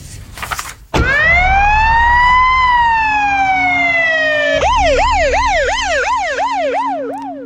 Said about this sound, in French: La voiture de police repart, toute sirène hurlante, sous le regard ahuri des passants.